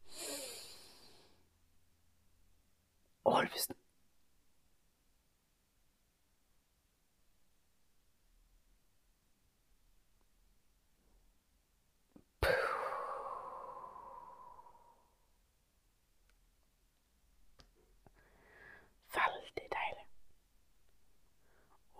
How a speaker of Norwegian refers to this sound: Og vi gjør det en gang til. Pust godt inn.